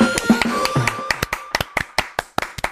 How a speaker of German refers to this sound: Hey, Applaus, Applaus. Wunderbar.